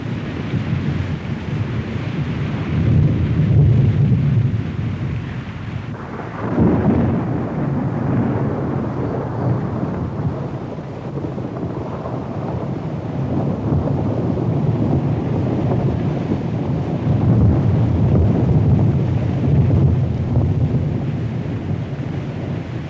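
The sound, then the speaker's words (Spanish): A heavy autumn thunderstorm in the Vallés area on 25 September 1962 roars steadily with deep rumbling and rushing downpour, swelling in gusty surges and staying loud throughout, with no voices. “25 de septiembre de 1962, una tormenta de otoño azota la zona del Vallés.”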